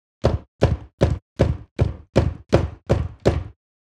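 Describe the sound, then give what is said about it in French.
A steady series of nine solid knocks on the door of a house, evenly paced and fairly loud, each a dull wooden thud, with no voices around them. “Alors, il se rendit chez lui et frappa à la porte.”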